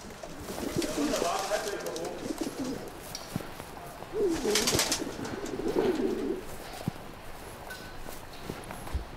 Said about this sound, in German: Okay, eine Taube hat sich verfangen, die kommt aus der Leiter nicht mehr raus. Da ist ein Taubenschutznetz, aber die Taube ist innerhalb des Netzes.